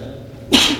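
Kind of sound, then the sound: human body sound, a person sneezing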